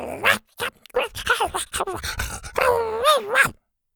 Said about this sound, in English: He growled happily when he saw Zada's triplets. He rushed over and licked their pudgy faces.